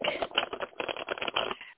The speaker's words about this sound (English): Let me shuffle my deck.